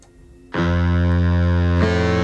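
After a brief near-silence, a loud, heavily distorted electric guitar chord bursts in and rings out thick and sustained, struck again just before the end, opening a singer-songwriter song with no voices.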